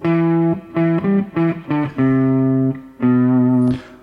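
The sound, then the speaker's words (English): A loud electric guitar plays a single-note riff with mild amp distortion from the amp turned up: a held note, several quick punchy notes, then two long sustained notes ringing out alone. “So just a single note riff, a little bit of you can hear a little bit of that distortion, but when I'm just playing the one note, it's not super prominent.”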